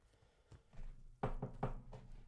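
A quick series of about four hollow knocks on wood, following a low background murmur, with no one speaking over them.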